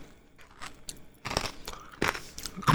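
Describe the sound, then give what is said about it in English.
Someone eating yogurt: a few short, wet mouth smacks and spoon clicks in irregular bursts, growing louder toward the end, with no talking. “And I'm eating yogurt.”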